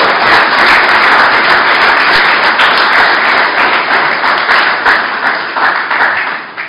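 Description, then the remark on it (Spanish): A church audience claps for the King of Kings and Lord of Lords in sustained, dense applause, loud and steady at first, with many overlapping hand claps that gradually thin and fade toward the end. “Dele palmas al Rey de Reyes y Señor de Señores.”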